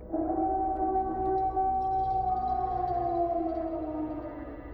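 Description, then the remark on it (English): A faint, deep, mournful baying of a gigantic hound that can be neither seen nor placed, at night: one long drawn-out howl that holds steady for several seconds and sinks slightly in pitch as it fades, with no voices. “And worst of all, that faint, deep toned baying of some gigantic hound which we could neither see nor definitely place.”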